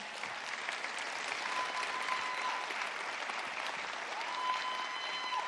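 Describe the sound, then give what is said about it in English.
Sustained applause from a sizable audience, a dense, steady wash of many hands clapping at once, fairly loud and continuous throughout with no talking over it, as a man is brought up to share his story. “All right, keep clapping.”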